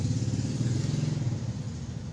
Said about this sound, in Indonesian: Bentar, so ini ada ada motor, Cok.